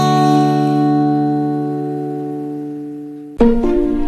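A pop song playing on the radio station Classic 103.8 ends on a long sustained chord that slowly fades, then a brief new burst of music with stepping notes cuts in at the end; no one speaks.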